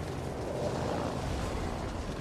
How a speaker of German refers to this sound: Die Explosion kam aus dem Nichts.